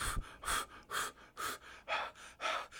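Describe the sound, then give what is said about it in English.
Steady, rhythmic breaths are blown constantly into a tuba to warm it up, about seven airy whooshes in quick succession, fairly loud, with no talking. “This is exercise on its own, just breathing it constantly. Because in a tuba, it takes a lot to warm that up.”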